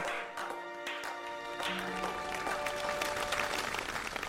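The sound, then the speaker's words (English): A crowd applauds steadily to show they believe in crypto, many hands clapping together in a dense, continuous patter that swells slightly toward the end, with a few faint tones and murmurs underneath. “If you all believe in crypto, clap. Clap right now.”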